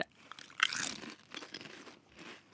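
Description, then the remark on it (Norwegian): Crisp crunching of potato chips being chewed by several people during a chip taste test, a sharp bite near the start followed by several seconds of steady, irregular munching with no talking. “Mens de tygger, så vil jeg bare si at det eh, jeg, jeg, har spist en hel pakke med cheese doodles før jeg kom hit.”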